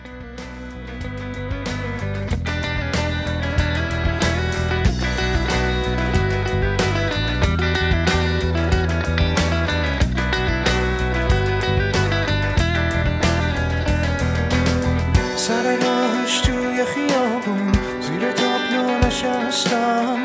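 A band plays a full, steady song with bass, chords and percussion at a constant loud level; the low end drops away briefly near the end before the arrangement continues.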